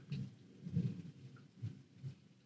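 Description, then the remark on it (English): A low rumble of thunder rolls in uneven swells, fairly faint and deep, with no voices over it. “No, the thunder.”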